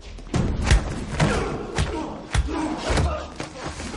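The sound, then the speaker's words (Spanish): Heavy punches and dull thuds land in an uneven series, about seven sharp blows over a few seconds, with scuffling and strained shouting between the hits, as Wolf goes up to one of the men in the hallway and hits him. “Se acerca a uno y le pega.”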